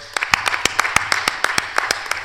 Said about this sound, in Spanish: que un aplauso también para ellos